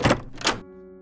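A door being opened: two quick, fairly loud clunks from the latch and handle, followed by a brief metallic ringing that fades out. No voices are heard.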